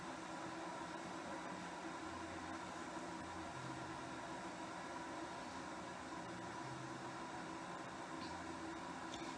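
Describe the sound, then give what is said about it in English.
A kettle heats water for a French press before it whistles, giving a steady, fairly loud hiss and low rumble that holds evenly throughout, with no talking. “Because I learned a long time ago that if you let the kettle start whistling, that that's too hot for a French press.”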